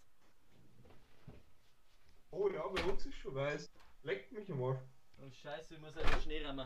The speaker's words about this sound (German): Also das, was ihr gerade gehört habt, war jetzt unser, war jetzt offiziell mein, mein Dachfenster. Äh, ich darf halt noch Schnee rammen.